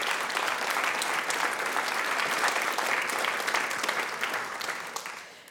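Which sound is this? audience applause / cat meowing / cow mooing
audience applause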